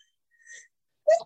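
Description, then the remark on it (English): A short, soft intake of breath followed by one sharp, forceful sneeze, fairly loud, with no talking around it. “sorry. Bless you.”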